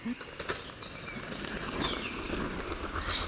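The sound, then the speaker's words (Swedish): Capercaillie display (lek) calls recorded outdoors around four o'clock: a few sharp clicks early on, then faint creaking and thin high calls over a steady background hiss, with no voices. “Ja fyra tiden då började jag höra knäppningar, knarrande och den här karaktäristiska klunken.”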